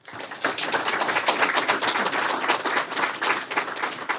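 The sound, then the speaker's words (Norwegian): An audience at a book talk bursts into applause for two speakers just introduced, a dense wash of many hands clapping at a steady, fairly loud level that holds for several seconds without any talking. “Så gi dem begge to en varm applaus.”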